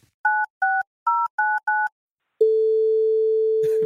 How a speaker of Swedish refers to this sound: Vi ringer upp Sara helt enkelt.